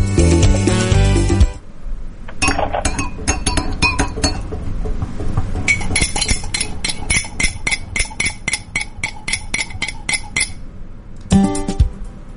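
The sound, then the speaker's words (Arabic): Metal spoons clink repeatedly against small tea glasses as the tea is stirred, in a quick, irregular, bright rhythm, after a short burst of music at the start. “شاهي شاهي بس كذا هم ايش الصوت أي.”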